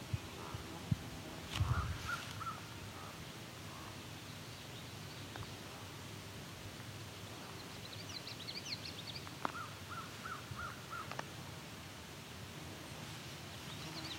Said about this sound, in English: also a raven here too. That is a crow I'm looking at, but there are two ravens calling each other.